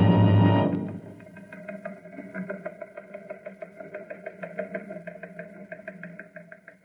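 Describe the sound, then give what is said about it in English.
A recon car's engine roars loudly for a moment, then settles into a steady, rhythmic chugging that runs until the end, with no voices. “I'm on my way in a recon car.”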